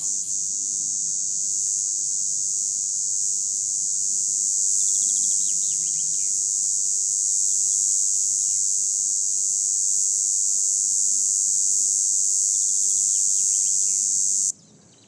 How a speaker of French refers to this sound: de la cigale rouge, Tibicina aematodes, et du pinson des arbres derrière.